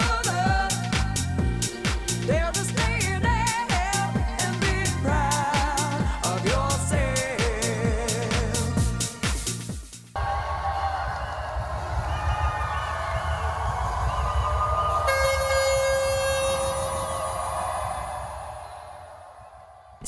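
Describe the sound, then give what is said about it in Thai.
Loud, pounding dance music with a steady beat gives way to a dense, continuous roar of a large crowd at the 2020 Mardi Gras street parade in Sydney, with high sustained tones ringing above the noise. “สียงของฝูงชนจากขบวนพาเหรดเทศกาลมาดิกราเมื่อปี 2020 ที่ซิดนีย์”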